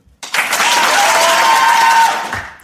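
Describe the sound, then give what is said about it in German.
A canned applause sound effect triggered by pressing a soundboard button to simulate a live audience: the burst starts abruptly, holds steady as a dense, loud wash of clapping with a few faint whistles or cheers, then tapers off after about two seconds. “Meinst du, es lief und die Leute haben uns das mit dem Live-Publikum abgenommen?”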